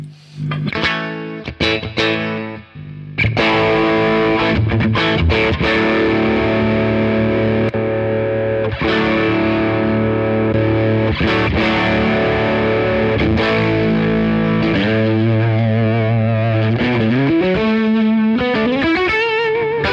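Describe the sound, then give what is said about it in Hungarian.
Overdriven electric guitar played alone through a Tubescreamer overdrive pedal, starting with a few sharp choppy strums, then sustained crunchy chords and sliding bends, loud with a mid-heavy, saturated tone. “ezek a középvágottnak tűnők, nem tudom, hogy mi lehet, hogy Gibsonnal ez a jó pofák.”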